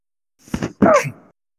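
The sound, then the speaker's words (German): A single sneeze, fairly loud: a short breathy intake followed by a sharp, voiced burst that trails off quickly, with no talking around it. “Gesundheit.”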